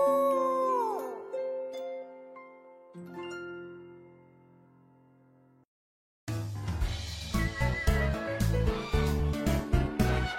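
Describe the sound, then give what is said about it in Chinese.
A big wolf howls in the distance in two long, wavering cries, the first sliding downward in pitch, the second holding steady and fading out; after a brief silence, lively music with a strong beat begins. “远处的大野狼”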